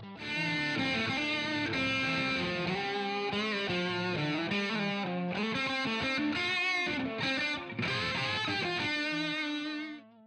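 A heavily distorted electric guitar plays a continuous, gritty melodic line with sustained overdriven notes, loud, ringing out alone before fading at the end.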